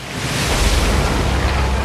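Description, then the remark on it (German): Breakers crash in a loud, continuous roar of churning surf as a ship heads toward rocks, swelling slightly at the start and then holding steady, with a deep rumbling low end and no voices. “Das sind Brecher! Alle Mann an Deck!”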